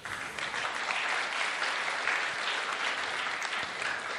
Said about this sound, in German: Und das Tolle ja, ihr dürft klatschen, ja.